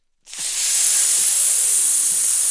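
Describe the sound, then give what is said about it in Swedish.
A person breathes in, then, as a breathing exercise, exhales a steady, sustained hissing "sss" sound that begins abruptly after a brief silence and holds at an even, fairly loud level for about two seconds. “Jag säger nu, andas in. Kroka på ett S och så kör vi.”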